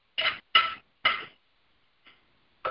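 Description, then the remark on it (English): Dishes being washed: a quick run of sharp clattering knocks, three loud ones in succession, then a faint clink and another loud clatter, with no talking. “Somebody doing dishes, can you please mute?”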